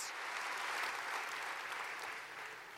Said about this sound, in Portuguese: Então dê um aplauso, mais um aplauso para o Senhor.